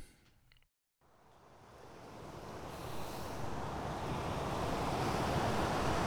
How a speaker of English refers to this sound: All right, what a spot, huh? So good. Got the ocean in the back. It's probably going to be more like ocean in the foreground, but I think it'll be nice.